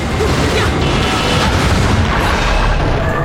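A video game punch smashing through a mystical door, heard as a loud, dense crash with a heavy booming rumble that holds steady for about three seconds, with no voices.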